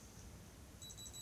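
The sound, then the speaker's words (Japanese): A small electronic body thermometer finishes measuring a temperature and beeps several times in quick succession, thin high-pitched chirps that start near the end, faint over a quiet background hiss. “あれ鳴らない体温計”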